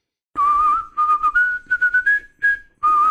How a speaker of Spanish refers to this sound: me gustaría que silbaras el tema de …